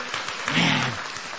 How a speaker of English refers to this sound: Somebody just give the Lord a hand clap this morning. Don't you love Jesus?